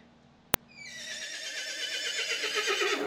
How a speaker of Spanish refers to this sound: Pero si te dicen caballo tres veces, mi gente, usted tiene que relinchar. No hay de otra.